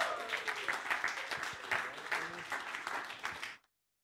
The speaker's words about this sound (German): Heiße mal herzlich willkommen mit einem Applaus.